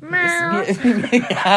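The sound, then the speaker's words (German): A voice gives a drawn-out imitation of a cat's meow, a rising then falling wail, then quickly breaks into laughter and a few quick spoken words. “Und sie hört auf zu miauen.”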